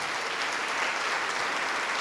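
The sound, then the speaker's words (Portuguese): An audience applauding the name of Jesus, a dense wash of many hands clapping at an even, sustained level with no pauses or voices standing out. “Todos que estão se sentindo fracos, todos que estão com dificuldades para seguir Jesus, vem aqui para frente e vamos aplaudir muito ao nome de Jesus.”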